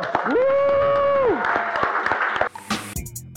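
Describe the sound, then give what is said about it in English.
An audience at a Melanin Money Show event bursts into loud, steady applause for a guest, with a long sustained whoop rising above the clapping for about a second, then the clapping cuts off abruptly and a different sound takes over. “Give him another round of applause, y'all.”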